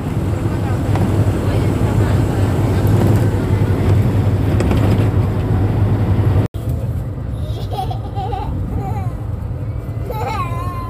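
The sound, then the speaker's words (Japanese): Steady, loud low rumble inside a bus driving straight along a rural road in southern Laos, with constant rattling and engine drone; after a brief cut, the rumble continues slightly lighter with a child's high voice chirping over it. “あのかなり、えーと、何て言えばいいんでしょうか痛々しいバスで、えー えっと、音がね騒音がね結構ガタガタゴトゴトうるさいと思います今、えー、ラオス南部の田舎の道をまっすぐ走っているところです”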